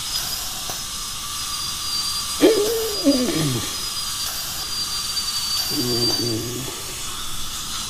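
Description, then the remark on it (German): A dentist's drill whines at a thin, steady high pitch throughout as it grinds away a bit more of a patient's tooth, over a bed of hiss, with two lower grinding, pitch-bending bursts as it bears down, moderately loud. “So, jetzt bohren wir da noch ein bisschen was weg.”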